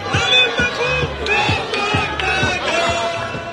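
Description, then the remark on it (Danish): A large crowd of demonstrators on a protest march through the streets chants slogans rhythmically in unison, voices rising and falling with steady beats, loud and continuous throughout. “De sidder op på skuldrene, og så går man igennem gaderne og råber, og råber kampro.”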